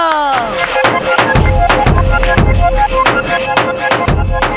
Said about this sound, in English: Yay! Clap for Crystal.